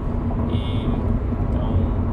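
A steady, loud low rumble of road noise from inside a moving car, about 5 minutes from a drive-thru vaccination post, continuous and even throughout, with a faint brief whine rising above it partway through.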